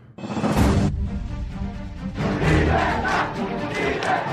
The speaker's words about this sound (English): On July 11th, 2021, a loud call for freedom was heard on the streets of communist ruled Cuba.